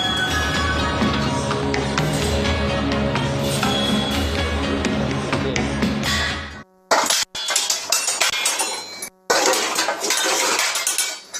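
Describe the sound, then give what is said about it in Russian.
A spoon stirs corn starch with one and a half tablespoons of water in a bowl, with rapid, continuous metallic clinks and scrapes ringing against the sides, then a few brief pauses before the stirring resumes. No one speaks. “Его нужно размешать с полутора столовыми ложками воды”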